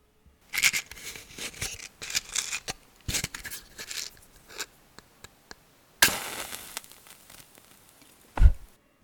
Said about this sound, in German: Genau, das war eine Streichholzschachtel und ein Streichholz wurde angezündet.